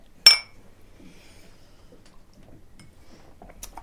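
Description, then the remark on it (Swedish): A single bright clink of wine glasses touching in a toast to someone's success at a restaurant, sharp and ringing briefly before fading, with faint background movement and a small tap near the end. “Låt oss skåla för er välgång”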